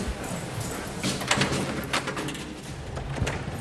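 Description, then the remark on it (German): A dog whimpers restlessly as it waits to be taken for a walk and is about to be put on its leash. Its soft whines are mixed with scattered rustling and light metallic clinks, with no one talking. “So, Hund, jetzt gibt's die Leine.”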